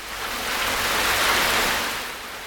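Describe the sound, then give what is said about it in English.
A steady, dense wash of heavy rain hisses across the whole clip, swelling slightly louder in the middle before easing back, with no voices present. “Yes, It's still raining heavily.”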